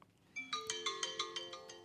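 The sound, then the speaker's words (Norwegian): A phone alarm clock ringtone plays a bright, repeating electronic melody, its notes pulsing in a steady rhythm of about six beats after a brief quiet start, clear with no voices. “Vent, Dem er min vent, vekkerklokke. Nå må jeg stå opp.”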